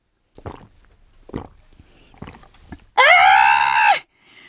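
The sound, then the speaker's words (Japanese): Someone gulps down Tokusen Yotsuba milk from a green and white package in four steady swallows, then lets out a loud, drawn-out satisfied vocal cry lasting about a second before it cuts off. “みんな牛乳を飲もうどうよどうだよ飲みたくなっただろみんなこの喉越しの音がもうピカイチよな”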